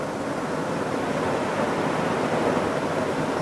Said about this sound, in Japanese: 今この収録時間ですね結構夜遅めの時間でホテルのですね海の見えるオーシャンフロントっていうですね部屋のですねベランダからですねちょっと波の音が聞こえるかな